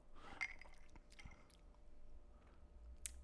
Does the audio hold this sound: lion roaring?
no